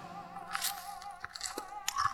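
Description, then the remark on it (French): A crunchy bite into a piece of bread spread with a large portion of sweet jam, followed by a few softer chewing crunches at an uneven pace, with no talking. “Le contre-amiral étala une large portion de la gelée sucrée sur un morceau de pain et croqua généreusement dedans.”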